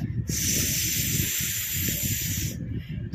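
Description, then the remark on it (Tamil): A voice imitates a snake, making a long, sustained hiss, steady, lasting a couple of seconds before cutting off abruptly, with low rumbling noise underneath. “என்று பாம்பு சீரலாய் கேட்டுக்கொண்டிருந்தது”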